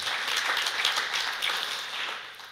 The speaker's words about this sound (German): Darf man klatschen? Das ist erlaubt.